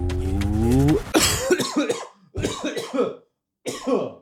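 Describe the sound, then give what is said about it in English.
A sustained sung note breaks off into a harsh coughing fit: several rough, sputtering coughs in three clusters separated by short gaps, sounding like someone choking. “I choked on my own semen there.”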